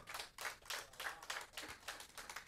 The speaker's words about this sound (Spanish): Dale un aplauso al que vive, vamos.